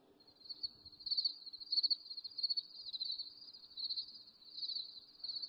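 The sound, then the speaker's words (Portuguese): A continuous chorus of crickets chirping, a dense high-pitched trilling that pulses in overlapping waves throughout, steady with no voices present. “Isso é um coral de grilos.”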